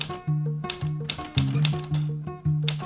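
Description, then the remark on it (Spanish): Typewriter keys strike in a quick, uneven rhythm, each sharp clack clear, with a steady low hum running underneath throughout. “La vida a través del golpe de teclado.”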